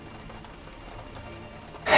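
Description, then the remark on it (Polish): Steady rain hisses and patters outdoors in a continuous wash, with strong wind blowing through it, then a sudden loud gust-like surge bursts in right at the end. “Na dworze padał deszcz i wiał silny wiatr.”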